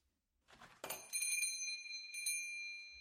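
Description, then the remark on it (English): A shop's door chime rings out after a brief clatter as someone enters, its bright metallic tone sustaining and then struck again, ringing on with no voices present. “Tom jumped when the door chime rang.”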